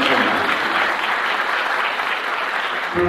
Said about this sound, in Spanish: Le damos un aplauso porque ahora mismo viene a escena con este hermosísimo tema